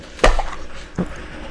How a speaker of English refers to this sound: But you washing dishes over there? Yeah, I apologize to y'all. What was that? You washing dishes? Mm-mm. She started the dishwasher, y'all.